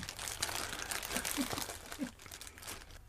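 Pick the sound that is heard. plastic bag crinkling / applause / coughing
plastic bag crinkling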